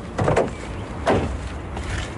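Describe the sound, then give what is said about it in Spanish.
A car trunk opens with a mechanical clunk, followed by a couple of soft, hollow thuds as rolls of wallpaper tumble to the ground, over a low steady background hum. “Un día Joe ve a Sara cómo se le caen al suelo unos cuantos rollos de empapelar paredes al abrir el maletero del coche.”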